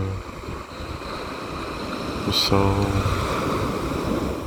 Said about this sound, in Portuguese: Uma brisa de verão, as pequenas ondas do mar